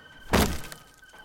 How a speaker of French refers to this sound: Un bruit franc et sourd indiquant que la porte venait de se refermer interrompt la conversation brièvement.